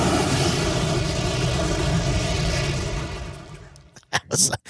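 A fireball sound effect: a loud, sustained rushing roar that holds steady for several seconds, then fades, followed by a few short, sharp bursts of noise.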